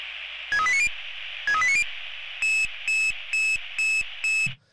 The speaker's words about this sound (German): Wenn dieses Geräusch ertönt, ja, bei den digitalen Piepsern ist es ein bisschen anders. Ich weiß. Ich kenne aber nur das Analoge. Okay. Aber wenn dieses Geräusch ertönt, dann wissen wir, der Puls geht nach oben